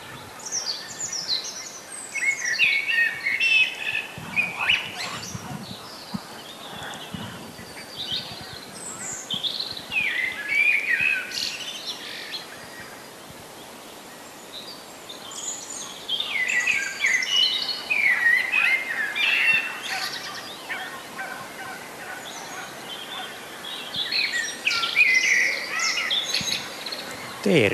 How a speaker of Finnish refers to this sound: Mutta huomaatteko, sama metsämikrofoni taltioi kyllä. tätä hetkeä. Musta rastas, kuunnellaan hetki sitä.